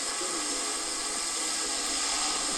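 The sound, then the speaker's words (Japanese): A drone flies steadily, its rotors producing a loud, continuous high-pitched whirring buzz with a bright, noisy hiss and no pauses. “ドローンの飛行音を収録してみました”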